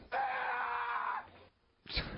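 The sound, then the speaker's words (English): A shrill, squeaky elf-like voice screams a long, drawn-out "Santa," held for about a second, then after a brief pause a short, loud burst cuts in. “Uh, we get to hear an elf screaming Santa.”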